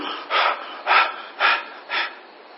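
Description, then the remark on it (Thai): Four quick, heavy panting breaths in a steady rhythm, each a loud breathy rush, with no talking in between, as after walking up a high mountain until nearly out of breath, breathing fully into the lungs. “จนหายใจเกือบแทบจะไม่ทันกันนั่นน่ะ ให้มันได้ผายปอด ให้มันลงปอดให้เต็มที่ หายเลยที่นี่”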